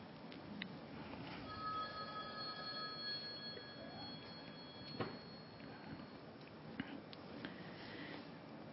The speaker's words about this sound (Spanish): Ese es tu celular tiene que poner en silencio. Pero vamos a esperar porque para que no salga ese ruido.